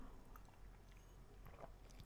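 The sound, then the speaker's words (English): Quiet mouth sounds of someone sipping beer: soft wet slurps and small swallowing clicks over a low background hum, with no talking. “So let's take a sip of beer.”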